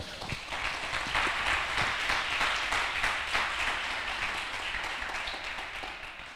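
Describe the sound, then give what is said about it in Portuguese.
A crowd breaks into steady applause, many hands clapping in a dense, even wash that holds for several seconds and tapers slightly toward the end. “Você pode dar um aplauso aí para.”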